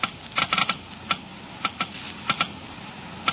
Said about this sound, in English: Listen now as the Geiger counters click off the difference. First, the low wear rate of the new RPM. Now the much faster wear rate of the conventional oil. Now new RPM again.